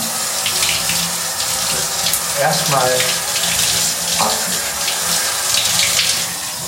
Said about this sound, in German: Ich befinde mich jetzt also unter der Dusche. Also noch nicht, aber die Brause habe ich in der Hand. Jetzt geht es also los mit dem Duschen.